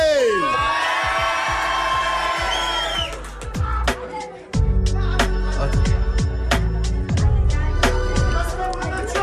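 A crowd cheers and shouts with loud, overlapping whoops for about four seconds as the KLBD event begins, then a thumping beat-driven instrumental kicks in and carries on to the end.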